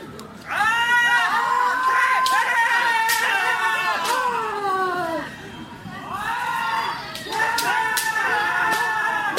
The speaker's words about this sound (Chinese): 我这个是深圳站呃什么熊本熊的跑酷的一个舞台现场，然后现在是这个剑道的练习的声音，呃表演的声音。 刚才打的是单击打击面的，第二次我们看看连续的打击的练习。